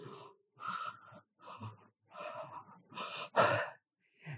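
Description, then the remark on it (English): A person breathes heavily and deliberately with the jaw pulled down in a breathing therapy session: about half a dozen loud, rasping, gasping breaths in a steady in-out rhythm with short pauses between, the last few the strongest. No talking. “The the therapist touches you all over practically, and she just grabbed my chin and pulled it down and I start breathing like this.”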